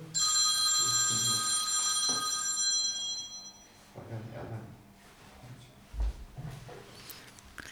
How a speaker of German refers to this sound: Ups, Telefon.